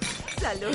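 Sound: glasses clinking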